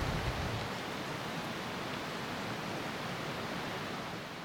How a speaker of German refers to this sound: Ich schlendere noch ein bisschen dem Landwasser nach. Das ist der Fluss, darum rauscht es auch so im Hintergrund und schaue das Viadukt mal von ganz näher an.